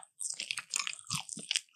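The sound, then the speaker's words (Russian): Crunchy chewing of chicken wings: a quick run of crisp, crackling bites and munches, fairly loud and bright, with no talking over it. “Курицу ты ешь, крылышки куриные.”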